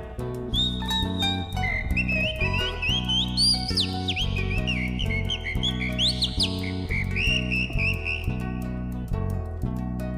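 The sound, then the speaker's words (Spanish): A person whistles a lively, warbling imitation of the song of the calandria mockingbird, with rapid chirps and rising and falling glides, over steady, loud instrumental music with a rhythmic bass and chords. “Silba la calandria.”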